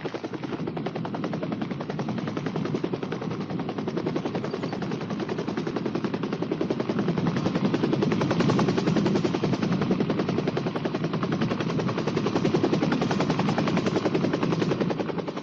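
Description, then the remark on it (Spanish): A helicopter's rotor thumps in a rapid, steady chop, loud, with engine whine underneath, continuing without a break and slightly swelling in the middle, during an expedition into the virgin jungle of Venezuela. No one speaks. “Hemos de reconocer que todo el mérito de esta conquista geográfica pertenece a Codesur y a los pilotos de los helicópteros.”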